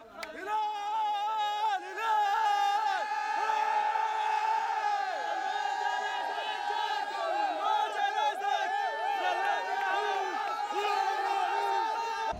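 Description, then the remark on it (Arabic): A dense crowd of Al Hilal football fans cheering and chanting in celebration of their club's third continental title, won in a match at Saitama Stadium, many voices shouting and whooping together at full volume, sustained and energetic throughout. “الجماهير الهلاليه كانت حاضرة وبقوة بمؤازرة فريقها سواء التي سافرت إلى اليابان أو تابعت المباراة من السعودية دعونا نرصد لكم فرحة الجماهير الهلالية في التقرير التالي”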